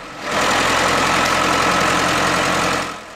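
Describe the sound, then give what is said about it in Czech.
A diesel wheeled forestry skidder tractor, used for hauling logs, works in a forest. Its engine runs steadily, a loud, rough mechanical drone with a knocking low rumble, fading in at the start and out at the end. No one speaks. “A takhle, pro srovnání, práce s dýzlovým lesním kolovým traktorem, který se pro tahání kmenů společně s takzvaným železným koněm používá nejčastěji.”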